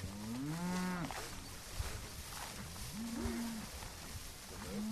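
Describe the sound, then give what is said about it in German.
A herd of 200 cattle mooing outdoors on open pasture, where they live year-round and rotate between pastures: a long low moo early on, followed by a few more drawn-out calls from several animals, over steady wind and field ambience. “sollen die 200 Rinder helfen, die Benedikt ja auf die Wiese losgelassen hat”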